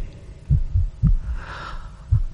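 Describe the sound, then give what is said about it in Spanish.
A deep, muffled heartbeat thumps in slow paired beats, lub-dub, growing louder, with a faint hum behind it and no voices. The beats are heavy, with a short pause before the last one. “Los latidos se oían cada vez más fuertes, más fuertes.”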